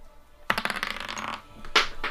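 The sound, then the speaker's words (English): Dice clatter onto a hard table, a rapid burst of small tumbling clicks followed by a second short rattle as they come to rest, fairly loud with no voices. “Oh no, my dice.”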